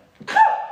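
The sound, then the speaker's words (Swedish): A single sudden sneeze, fairly loud, with a short sharp intake followed by a voiced, explosive burst that trails off. No talking around it. “Prosit. Ursäkta.”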